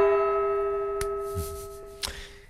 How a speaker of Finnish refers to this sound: ja kongi kumahtaa ja väittelijät vaijatkoon, niinhän se ohje kuului.